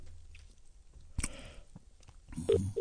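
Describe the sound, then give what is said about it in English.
A sharp click, some faint handling noise, and then short, steady electronic telephone tones near the end, like a call being dialed and starting to ring, as a phone call is placed to a man in Glasgow. No one speaks. “This is about to go to him. I'm calling.”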